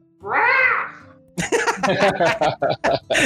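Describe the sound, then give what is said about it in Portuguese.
A person imitates a crow with one drawn-out, nasal caw, loud, and then someone starts talking quickly right after it. “Você emite um som igual de um corvo e faz tipo uma reverência”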